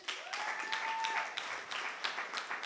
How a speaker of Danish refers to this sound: Skal vi lige klappe af hende?